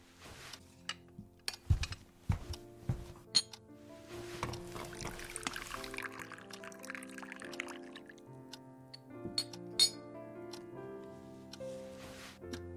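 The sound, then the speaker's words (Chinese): Several sharp porcelain clinks of a teacup, then a steady hiss of hot water pouring for a few seconds as hot tea is made in an office, followed by two more light clinks. Soft ringing tones linger underneath, with no voices. “我给你泡杯热茶。”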